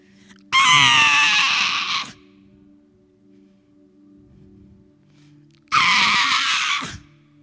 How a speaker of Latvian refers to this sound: Pirmais elpas vilciens pirmais kliedziens. Bērniņš sāk savu dzīves ceļu.